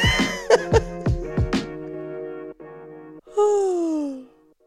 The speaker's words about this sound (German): Das ist auch schön, so zum Einstieg in die Podcast-Folge erstmal gähnen.